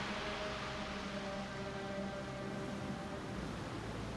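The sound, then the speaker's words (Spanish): A deep lighthouse foghorn blast holds steady for the whole stretch, a low droning tone with faint hissing noise around it and no voices. “La sirena llamó.”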